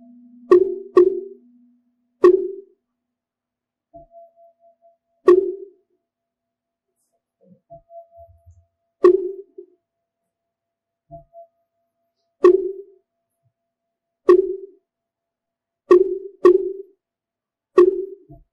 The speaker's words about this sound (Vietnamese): như vậy thì ở đây chúng ta vào vô rồi chúng ta ra là cái cách đánh chuông và đánh mỏ như vậy giữa đánh mỏ và chuông nó phải có một cái cái nhịp tối thiểu của nó